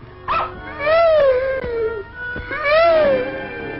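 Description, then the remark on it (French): A dog whimpers and howls in two long, wavering, high-pitched cries, opening with a short yelp, sounding agitated with no voices present. “Toujours est-il que depuis cette rencontre, les vaches refusent leur nourriture, les chiens sont fébriles.”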